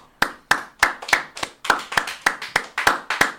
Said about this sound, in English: I want to to give a clap. I know we can't hear each other, but for everybody who's serving on the front line. So those of you here with me, you can clap, and everybody else where you're at, clap with me.